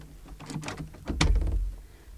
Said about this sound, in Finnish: Sulkekaa ovi, Schweik.